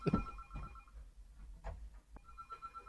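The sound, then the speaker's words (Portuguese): A second telephone rings with steady electronic tones, a sustained buzzing ring that cuts off and restarts, with some low thumps. “é o outro.”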